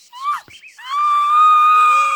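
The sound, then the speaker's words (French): A woman giving birth to her third child screams in pain in a house on rue Montaut in Marseille on a hot day in 1868: a couple of short, sharp cries followed by one long, loud, strained wail held steadily, with no talking. “Au numéro 14 de la rue Montaut, une femme crie.”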